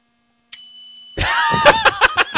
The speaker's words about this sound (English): Did somebody just ring a bell? Did the cat just ring a bell? that goddamn cat.